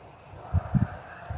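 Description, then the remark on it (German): A steady chorus of crickets chirps everywhere in rapid, high-pitched pulses outdoors on the street in front of a house at the edge of a town, with a few soft low thumps, maybe footsteps, underneath. No one speaks. “Überall die Grillen am Zirpen.”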